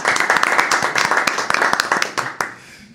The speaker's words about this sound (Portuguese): uma salva de palmas.